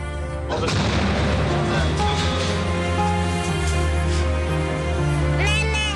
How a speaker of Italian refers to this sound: Ci sono molti attacchi aerei oggi, vero?